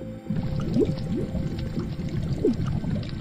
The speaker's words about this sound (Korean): 보글보글거리는 물소리? 그런데 이걸 좀 더 자세히 들어보면 물속에 잠긴 사람이 무언가를 말할 때 나는 그런 소리와 유사했습니다.